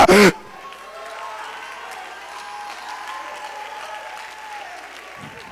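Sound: audience clapping hands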